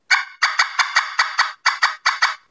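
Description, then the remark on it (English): A turkey pot call is struck with a striker in rapid, sharp cutting notes: about a dozen loud, raspy, high-pitched clucks in quick bursts with brief pauses, alone, imitating an excited hen turkey. “Yep, bring it bring it down a little bit, but just uh, playing with that, and then the higher you hold on that striker, the easier it'll be to cut.”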